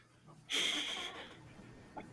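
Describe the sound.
A voice imitates labored breathing heard over a comm call: one long, raspy, wheezing breath, followed by a short, sharp catch like a small cough. No words are spoken.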